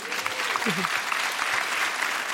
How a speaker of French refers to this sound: Vous pouvez applaudir, c'est incroyable.